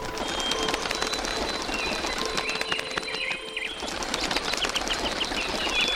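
A flock of birds flapping their wings in flight, a dense, steady fluttering rush with a few faint chirps mixed in, holding at a fairly constant level throughout.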